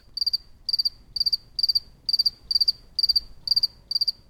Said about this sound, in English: was the only one left within earshot, still chirping away. Luckily, he was nearby where I was set up, and I was able to get this pristine recording of a single solitary cricket.